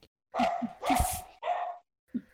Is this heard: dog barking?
yes